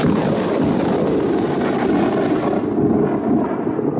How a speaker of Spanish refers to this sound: El sonido ambiente es el canto de los grillos o de los búhos. Y cada hora en punto se recrea una tormenta con rayos y truenos.